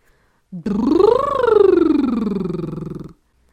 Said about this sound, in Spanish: Por ejemplo, un ejercicio que va muy bien para relajarte y además eh, ir calentando y preparando tu voz es el famosísimo lip bubble, que involucra aire y sonido y además te hace ser consciente de la velocidad del aire.